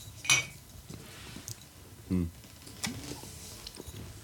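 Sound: clinking glasses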